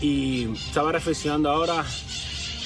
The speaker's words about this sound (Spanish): y lo siento por el ruido de los fucking pájaros.